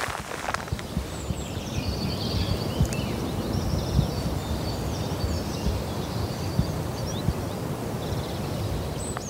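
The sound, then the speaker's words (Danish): A wood warbler sings faintly in short high trilling phrases, nearly buried under steady rustling, wind-like noise that fills the whole clip. “Hov, var det skovsanger?”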